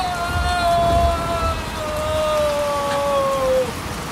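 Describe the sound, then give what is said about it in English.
Heavy rain pours down in a steady, dense hiss throughout, while a thin sustained tone glides slowly downward above it before fading near the end. “He ran several steps in the rain.”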